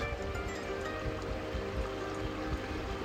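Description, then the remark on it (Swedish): Steady flowing water outdoors in sunny nature, with wood anemones in the grass, a continuous rushing wash with soft gurgling pulses, even in loudness throughout, with no voices. “Jag lyssnar på vattnet här och Ja, naturen har så mycket till oss.”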